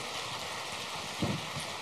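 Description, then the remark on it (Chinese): Warm applause from an audience, given in thanks to Lu Junhong for her talk: dense, steady clapping blending into a continuous crackling wash, holding an even level throughout with no voices. “让我们再次以热烈的掌声，感恩卢军红台长为我们带来的精彩开示。”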